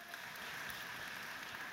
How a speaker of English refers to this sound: Now, see, we all clap.